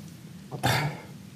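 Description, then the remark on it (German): One sharp sneeze, a brief intake followed by a sudden breathy burst that fades quickly. Nobody talks, and the rest of the moment is quiet. “Hatschi.”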